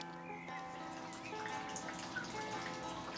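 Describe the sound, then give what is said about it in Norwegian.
Heavy rain dripping and pattering on a grey day, a continuous wet patter with scattered individual drops over a faint, even background hum. No voices. “I dag er det 7. april. Ganske grått. Veldig mye regn.”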